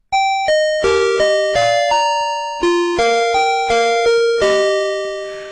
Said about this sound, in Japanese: 元歌ファミリーマートの入店音のこの部分です。